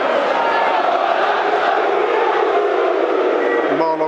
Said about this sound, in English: It's a reasonably full house in here this afternoon, listeners. Not a full house, there are you know seats around, but it's, um, it's a good sized crowd in for what has been a very flat week in, in Millwall uh, Mill season.